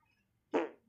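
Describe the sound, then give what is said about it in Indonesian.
A single loud, raspy fart bursts out abruptly and trails off over a fraction of a second, isolated against near silence. “bener itu bener kira ada suara suara kentut tuh cewek kentut gede banget tuh Gila lo ngebas lo kentut lo.”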